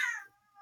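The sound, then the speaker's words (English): A single short meow from a pet cat, bright and harmonic, starting loud and trailing off, followed by a brief rustling noise; clear with no talking. “That's my cat.”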